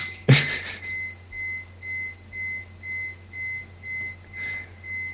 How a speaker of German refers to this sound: fährt ein Laster rückwärts. Äh, der parkt ein.